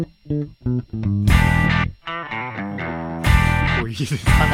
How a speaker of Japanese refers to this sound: 原曲とは違うテイストで聴きますねこれもいわゆるカッティングという逆にこのエレキギターのカッティングそういうかっこいいの僕はできないんですね